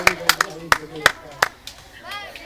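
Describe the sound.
A few scattered, sharp hand claps ring out at an uneven pace, fading into brief light applause for the winner of a match, with voices murmuring underneath.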